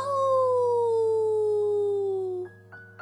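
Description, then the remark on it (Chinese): A wolf howls from far away, one long, smooth note that slowly slides down in pitch for over two seconds, then gives a few short, higher yelping calls at the end. No one speaks. “莫卡吓呆了，“是是是是是是狼！”他叫道，“是是真的狼！”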